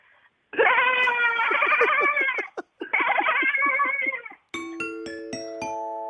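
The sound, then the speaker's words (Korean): A person imitates a goat, giving two long, wavering bleats with a quivering, stuttering rhythm, loud, followed by a short burst of bright, bell-like chime tones. “막그 막 웃음이 빵빵 터져서 딩동댕도 있고 예, 어찌어찌 하다 보니 그냥 저 넘어가는 경우도 있는데 염수 소리가 그래도 좀 괜찮았어요.”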